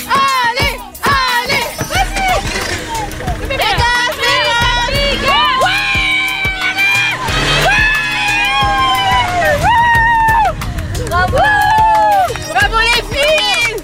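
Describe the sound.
Several women shout and cheer excitedly together, high-pitched whoops and joyful cries rising and overlapping in a loud, sustained burst of celebration with some scattered talk.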